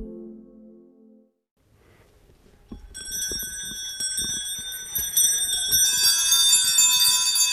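Shaft bells on a horse-drawn sleigh jingle in a bright, continuous shimmer that swells louder toward the end, with low thudding and rumbling underneath; a brief low hum comes before the jingling begins.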